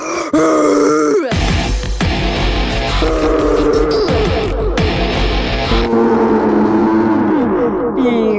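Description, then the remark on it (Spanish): A voice loudly imitates how the speaker sounds when vomiting, with drawn-out groaning retching heaves and gurgling grunts that continue for several seconds with little pause, distorted. “todo el bar de fijo me tuvieron que haber escuchado porque cuando yo vomito, yo no sé por qué suena así como...”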